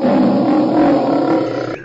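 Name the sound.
lion roar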